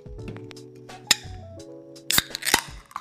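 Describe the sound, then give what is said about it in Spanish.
Glasses clink together in a toast: three bright, ringing taps, one alone and then two close together, set against a low, steady background of tonal sound. “Qué rico. Salud.”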